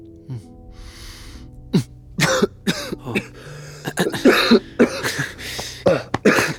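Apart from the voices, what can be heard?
coughing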